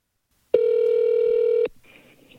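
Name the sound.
telephone dialing and ringing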